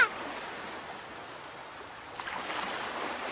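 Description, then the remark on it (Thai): Ocean waves wash steadily in a continuous hissing roar, with a fuller surge swelling partway through, as merchants sail a ship out onto the ocean. No voices, just the sea's rushing noise at moderate volume. “ครั้งนั้นพ่อค้าพากันเล่นเรือไปยังมหาสมุทรโดยเอากาบอกทิศไปด้วย”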